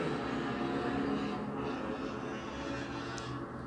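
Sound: motorcycle passing by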